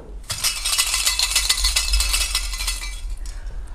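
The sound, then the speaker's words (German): Dense, continuous clinking and rattling of shells knocking together on old guitar strings from a guitar repair shop, part of a birdhouse sound artwork titled "Mit fremden Federn"; a bright jingling shimmer that swells and rustles for a few seconds before thinning out near the end. “repariert Gitarren und von dem habe ich alte Gitarrenseiten geholt und äh, dann diese Muscheln dazu.”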